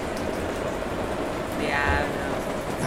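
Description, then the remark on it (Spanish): Steady rain falls throughout, a dense continuous hiss of drops with a brief brighter swell near the middle, moderately loud. “yo no sé si es o lluvia o el cabrón este.”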